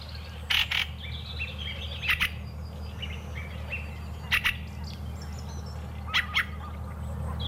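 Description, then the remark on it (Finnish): A fieldfare gives harsh, chattering calls in short bursts, about four clusters spaced a second or two apart, over a steady low outdoor rumble. “Kyllä se niin on, että räkättirastas haluaa nyt huomiota.”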